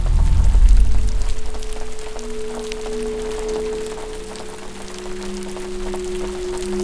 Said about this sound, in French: Il commença à pleuvoir. La pluie ambrée et opaque, pareille à de l'or liquide, coulait sur son visage.